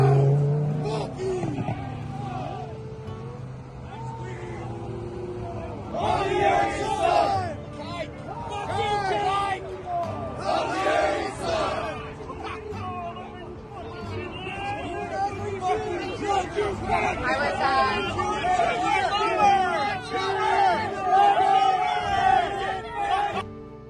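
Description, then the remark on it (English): A crowd of people yelling and shouting over one another at a woman, calling out "Laura Jumer", loud and sustained, with raised voices overlapping in an agitated clamor and a low rumble underneath. “They're all yelling Laura Jumer at her.”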